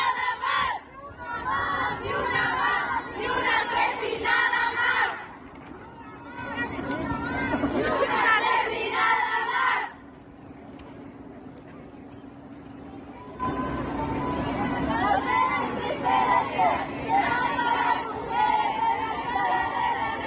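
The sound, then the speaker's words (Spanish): A large crowd of thousands of women marching and shouting together on the asphalt of Mexico City, a dense roar of many voices that swells, dips briefly midway, then rises again, sustained throughout. “Así se escuchó la voz, así se escuchó el grito, así se escucharon los pasos, eh, la marcha, la movilización, Así se escuchó el caminar de miles y miles y miles y miles y miles de mujeres ayer sobre el asfalto de la Ciudad de México.”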